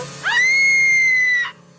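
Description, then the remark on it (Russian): A girl in a dark bedroom lets out one loud, shrill scream of fright, thinking a chair jumping across the room is a ghost, rising sharply and holding a piercing steady pitch for over a second before cutting off abruptly. No one speaks. “Я решила, что это привидение, и заорала во все горло.”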